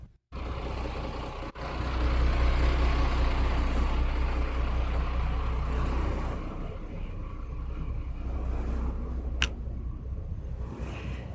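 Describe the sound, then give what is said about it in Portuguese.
The engine of the Fivela, a small blue and white boat on the Amazon River, runs steadily for several seconds, a loud, continuous low rumble with a droning throb, with no voices over it. “O Fivela é azul e branco e o motor dele faz um barulho mais ou menos assim.”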